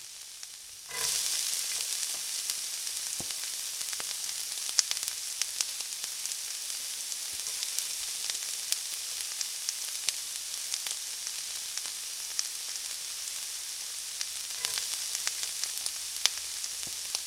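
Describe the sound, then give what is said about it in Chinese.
Wheat gluten, soaked, squeezed dry and mixed with five-spice powder, soy sauce and white pepper, deep-frying in oil until golden: after a brief quiet moment, a steady, bright hiss of sizzling bursts in and continues throughout, dotted with sharp crackles and pops. “泡发之后，我们把它挤掉水分，加入五香粉、酱油和白胡椒，把它拌匀，湿成丝，下锅油炸。”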